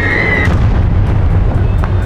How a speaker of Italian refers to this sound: un colpo d'artiglieria atterra di fronte a lui, togliendogli il terreno sotto i piedi.